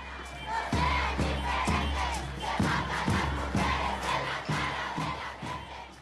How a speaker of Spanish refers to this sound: Lo que escuchamos de fondo es una movilización en Ecuador en contra de la violencia machista. Esos gritos se han replicado más de 20 veces durante la pandemia.